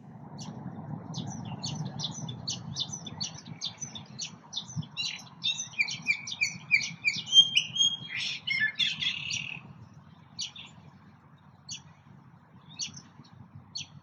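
Birdsong captured in the field with non-professional equipment: rapid, high-pitched chirps and trills crowd together for about ten seconds, then thin to scattered calls, all over a steady low background rumble.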